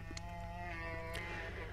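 A bear gives a drawn-out, low, moaning vocalization with a rich, steady tone, fairly loud for the whole short stretch, with no talking.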